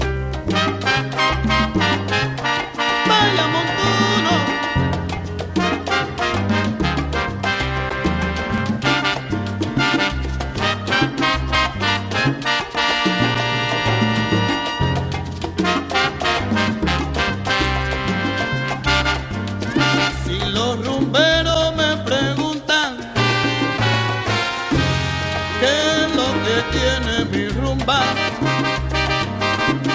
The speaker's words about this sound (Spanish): Escuchemos esta hermosa joya musical, niña, y salud.